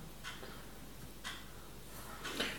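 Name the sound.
clock ticking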